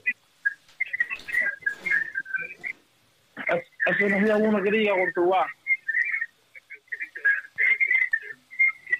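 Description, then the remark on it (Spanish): A phone-line call breaks up with shrill, warbling feedback squeals and echoing chirps repeating throughout, caused by a caller not turning down their phone, while a voice speaks briefly in the middle, sounding thin and distorted. “Tienes que bajar el teléfono porque se oye mucho eco.”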